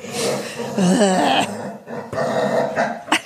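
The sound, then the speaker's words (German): A dog growls and grumbles, a low rumbling vocalization with rising and falling whine-like inflections, continuing for a few seconds before ending in a couple of short sharp noises. “Und man muss auch mal dazu sagen, das ist mein Hund, falls man ihn hört, dem ist langweilig.”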